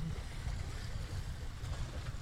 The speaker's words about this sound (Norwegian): Ja, nei, ja, men det er litt mer bølger i dag, da.